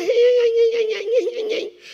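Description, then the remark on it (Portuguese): A person vocally imitates the yelping whimper of a cornered, mangy dog: a sustained, high, whiny tone that wavers and breaks into short yips before fading, fairly loud, with no other sounds. “Não é Satanás que tem que estar nos acuando, não somos nós que devemos que estar acuado como um cão sarnento latino, sabe aquele gritinho?”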